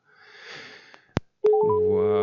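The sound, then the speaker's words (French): Soft breathy rustling and a sharp click, then a loud, steady telephone ring tone starts and holds continuously, like a call ringing out on the line, as an outgoing phone call is placed. “Voilà, vous voyez, je vous mets tout, hein, la, sonnerie de téléphone, comme ça, vous vivez l'instant.”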